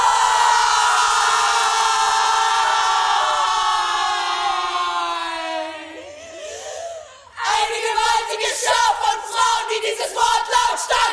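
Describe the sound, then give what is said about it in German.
A theatre chorus of five female drama students screams together on stage in a long, sustained, high-pitched unison cry that slides downward and fades, then bursts back in with loud, ragged, overlapping shrieks. “schreit!”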